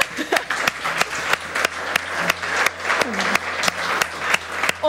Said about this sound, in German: Okay? Super. Dann einen großen Applaus für euch erstmal.